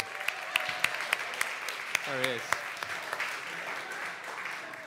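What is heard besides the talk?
round of applause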